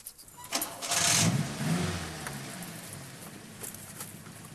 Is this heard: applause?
no